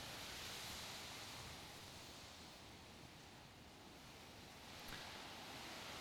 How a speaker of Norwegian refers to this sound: Nå ble det hagl på taket her.